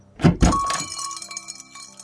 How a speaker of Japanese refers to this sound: カランと聞きなじみのあるドアベルの音店内に入る